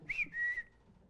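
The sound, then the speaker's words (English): Someone whistles a quick two-part phrase: a short bright note, then a longer held tone that fades out. It sounds clear, with no talking. “And this guy was probably just whistling.”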